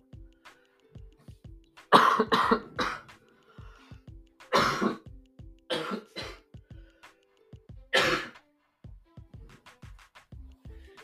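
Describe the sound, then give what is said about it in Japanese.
A person coughs in several sharp, harsh bursts spread across about ten seconds, fairly loud, with short pauses between fits and no talking. “ああ、咳が。”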